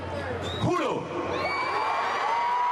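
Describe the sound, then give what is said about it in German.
A crowd of thousands in Venezuela cheers in a loud, sustained roar as Juan Guaido declares himself interim president, with scattered whoops and shouting voices rising over the dense wash of noise throughout. “Unter dem Jubel Tausender erklärt sich Guaido zum Übergangspräsidenten.”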